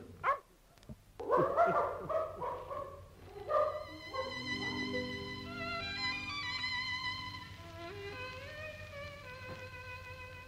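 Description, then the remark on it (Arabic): A dog lets out a few quick barks, then slides into a long, wavering whine that rises and falls in pitch before fading, with no one speaking. “الله واخويا يفضل كلب بالشكل ده دي اراده ربنا”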